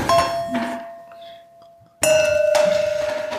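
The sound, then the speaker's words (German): A wine glass clinks twice as it is moved away, fairly loud, each knock leaving a clear ringing tone that lingers and slowly fades, with a quiet gap between the two touches. “Ich habe ein zweites Glas dazu bestellt. Muss, ich muss den trotzdem wegholen, sonst.”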